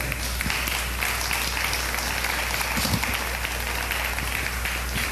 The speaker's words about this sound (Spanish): Pero el número uno en nuestra vida, hermanos, es Dios. ¿Cuántos le pueden dar un aplauso a Él?